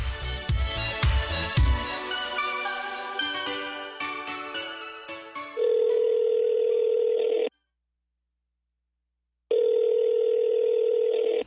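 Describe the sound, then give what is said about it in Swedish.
A short burst of music gives way to a steady telephone ringback tone as a call is placed: two long, even tones separated by a silent gap, loud and clear with no one speaking. “Så vi, vi gör så att vi ringer upp och hör hur, vad hon har kommit fram till med sin satsning och köldkörtelproblem.”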